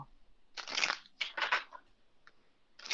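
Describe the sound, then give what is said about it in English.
Cards being shuffled, with two bursts of crisp, papery riffling and a brief flick, then another riffle beginning at the end. No one speaks. “So I just saw, like, as I'm shuffling, I saw unheard, and I'll tell you what I heard, saw in my dreams.”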